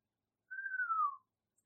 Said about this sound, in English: And okay, just run deeper into the hedge. And as you uh, you're running through, at one point you turn a corner and you hear a low whistle